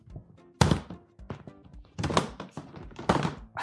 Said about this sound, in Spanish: Es una caja de plástico tipo pues del Ikea o de los chinos y dentro ponemos todo lo que no, no necesita nevera.